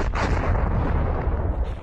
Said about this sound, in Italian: Il Tambora si accorciò di 1300 metri, passando dai 4100 originali agli attuali 2800. Fu un'esplosione catastrofica, la più imponente della storia dell'uomo.